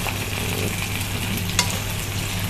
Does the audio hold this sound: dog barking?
no